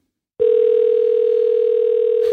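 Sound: telephone dial tone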